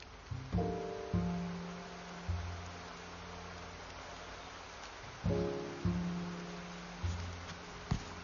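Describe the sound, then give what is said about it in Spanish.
Steady, soft synthetic rain hiss fills the background without a break, while low, mellow synthetic tones swell in every second or so in two similar phrases. “O lluvia. Seleccionado. Y lluvia.”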